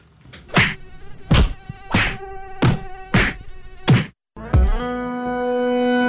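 A droning mosquito buzz runs under five loud, evenly spaced slaps, then continues alone as a steady, unbroken whine after a brief pause.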